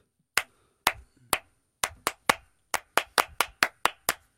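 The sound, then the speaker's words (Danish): A single person claps about a dozen times, sharp loud slaps at a loose, slightly uneven pace with brief gaps, and no voices alongside. “Hvorfor klapper du ikke mere end det?”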